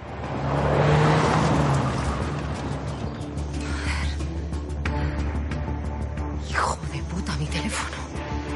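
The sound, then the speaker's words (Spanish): A car engine roars as the car is started and driven away at full speed, the loud burst at the start settling into a steady, droning engine rumble that carries on to the end. “El profesor se aleja en el coche a toda velocidad.”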